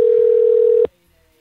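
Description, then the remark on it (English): A steady, loud telephone dial tone, heard before calling a party line number back, hums at a single constant pitch for under a second, then cuts off abruptly with a click, leaving near silence. “oh my god, I want to call them back. Those people were awesome. You know what though? I don't remember what number I dialed.”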